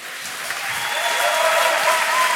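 crowd cheering and applause

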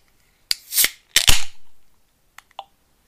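beer being opened

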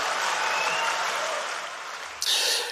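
crowd cheering and applause

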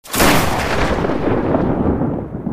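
thunder clap

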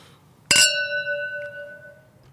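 wine glasses clinking

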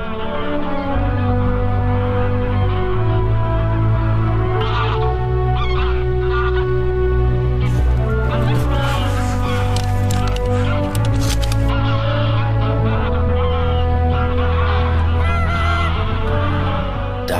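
wild geese honking

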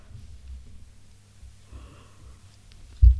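yawn

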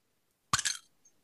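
beer bottles being opened

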